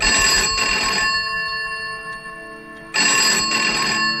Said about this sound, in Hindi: और तभी कमरे का फोन बजा